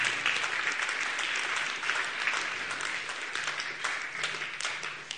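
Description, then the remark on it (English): A sustained round of applause from a crowd for those who responded, a dense wash of many hands clapping at steady loudness for several seconds with no voices standing out. “Let's just give them all a round of applause for responding.”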